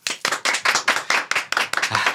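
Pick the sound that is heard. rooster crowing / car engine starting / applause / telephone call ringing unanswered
applause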